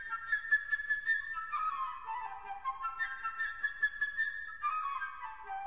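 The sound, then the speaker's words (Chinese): A flute plays the lively bird theme alone, representing the little bird in a symphonic fairy tale, a high, bright melody of quick fluttering notes and runs that dip and climb again, held at a steady moderate volume. “首先呢是小鸟的声音，它是由长笛来代表的。”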